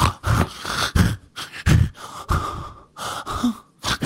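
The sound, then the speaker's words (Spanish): A voice imitates a mother's gasping, labored breathing at night, like asthma: a quick, uneven series of harsh, raspy breaths and snorting inhales, fairly loud, with no speech. “Como que ya no podía respirar, pobrecita, güey.”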